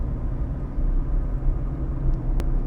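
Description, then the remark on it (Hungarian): Steady low road rumble fills the cabin, a continuous engine and tire drone heard from inside a moving car, with a brief faint click near the end. “Szóval szokás szerint úton vagyok, így a navigáció, illetve a forgalom zaja beszűrődhet a monológomba, kicsit színesítve azt.”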